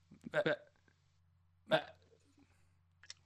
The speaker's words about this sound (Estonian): aa, ah, sa köhid praegu. Nagu. see oli see, aa, ah, sa köhisid okei.